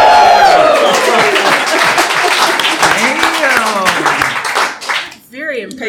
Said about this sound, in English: So raise our hands and give a mighty cheer